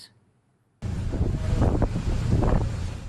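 After a moment of near silence, a loud, steady roar cuts in abruptly: a Turkish coast guard boat speeding at sea and overtaking a Greek coast guard vessel, its engine churning beneath heavy rushing wind and water noise.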